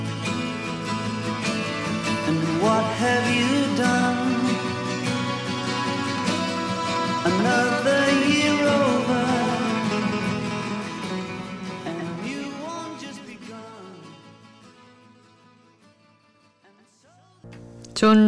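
A full, layered pop song with sustained harmonic instrumentation and vocal-like melodic lines, steady and loud, gradually fading out toward the end before a brief new sound starts.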